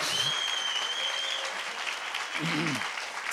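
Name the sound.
audience applauding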